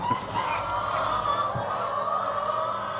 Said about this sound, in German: Hennen sehr, sehr viele Hennen. Braun gefiedert, auf dem eingestreuten Boden oder auf einem langen Gerüst mit Haltestangen, Futter- und Wasserversorgung, einem Laufband zur Entmistung.